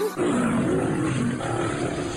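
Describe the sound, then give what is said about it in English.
A loud, sustained lion roar, rough and low, rising and wavering for about two seconds with no voices over it. “Right now, I'm feeling like a lion.”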